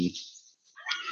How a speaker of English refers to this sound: yeah that's my dog's barking by the way